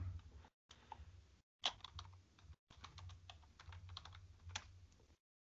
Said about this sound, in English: new clicky clacky keyboard.